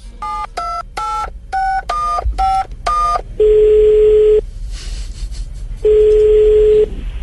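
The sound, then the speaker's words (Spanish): Seven quick touch-tone dialing beeps in an uneven rhythm, followed by two long, steady low-pitched ring tones separated by a pause, as Nairo Quintana phones Falcao, 'el Tigre', in a call aired on Blu Radio's Blog Deportivo. No one speaks. “Eh, les quiero contar que eh, hay grabación telefónica del diálogo entre Nairo y el Tigre.”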